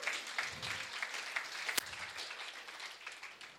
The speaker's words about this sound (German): Lass uns nochmal einen Applaus geben für Jesus.